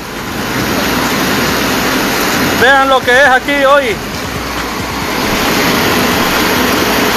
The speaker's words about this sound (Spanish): Es un río totalmente. Eso fue anoche. Se ha inundado, aquí se van a perder muchas cosas.